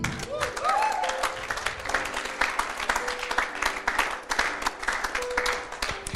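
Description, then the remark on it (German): A crowd breaks into steady applause for a person who raised their hand to start a relationship with Jesus, dense overlapping claps sustained for several seconds, with a few cheers and voices rising briefly through the clapping. “Hey, lasst uns der Person alle mal einen Applaus geben.”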